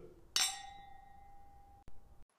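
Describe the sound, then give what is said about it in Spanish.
Wine glasses meet in a single bright clink, followed by a clear ringing tone that hangs for over a second before a short bump cuts it off. No one speaks. “gustó bastante. Salud. Salud.”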